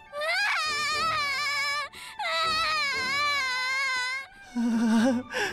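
A young child, whose father and mother are being waited for, wails loudly in long, drawn-out crying bursts with brief breaths between them, ending in a higher, strained sob.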